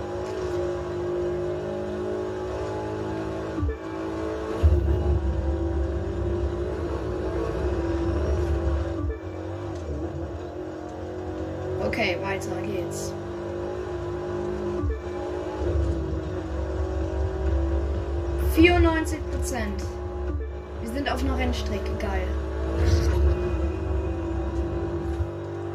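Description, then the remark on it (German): An off-road vehicle with 300k suspension in a racing game drifts toward the finish near Golden Hills; its engine drones steadily with a deep, rumbling low end, rising and falling as it revs, with brief sharp squeals and bursts of clatter along the way. “Das ist einfach mein kleiner Reh der Geländewagen mit der 300k äh, Federung, aber die ist wirklich”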